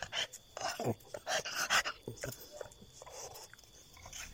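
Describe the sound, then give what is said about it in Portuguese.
A dog named Pilata pants and whimpers, with short breathy bursts and a few high, whiny cries in an uneven rhythm over several seconds. “Quem é o um pilata canino? Anda cá, pilata canino.”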